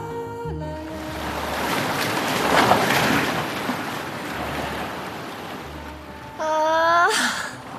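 Ocean waves wash steadily onto the shore in a broad, rushing surge that swells and recedes, with a few brief tonal sounds at the start and a rising harmonic tone near the end.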